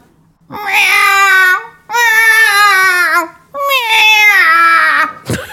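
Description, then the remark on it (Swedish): A person's voice imitates a yowling cat in heat: three long, loud, wavering wails with short pauses between them, sounding like an anguished crying howl. “jag kan låta som en katt som löper.”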